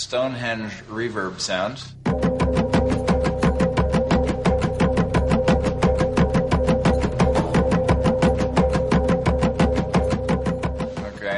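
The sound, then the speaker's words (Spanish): A voice talks briefly, then loud, steady drumming simulating Stonehenge drum music is played back in an experiment: rapid, evenly spaced beats that continue for several seconds, each one ringing out with a booming, reverberant resonance. “sea el tráfico o un tambor de Stonehenge”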